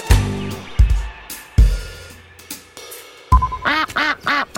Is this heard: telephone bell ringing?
no